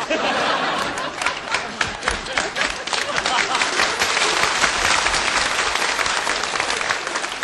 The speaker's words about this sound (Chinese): 你别鼓掌了，这烟全灭了。